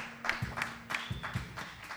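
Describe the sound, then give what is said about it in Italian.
Light, sparse applause from the audience at the first Soul Folks event, broadcast live from Largo Carducci in Prato: a handful of separate claps at uneven intervals, fairly quiet, over a faint steady low hum. “Questo è l'applauso del nostro pubblico che è stato qui con noi stasera.”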